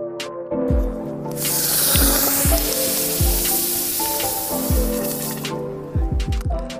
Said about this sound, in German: So klingt es, wenn man einen, ich würde mal sagen, anderthalb, zwei Kilo Basaltstein aus dem Feuer in die Würze steckt.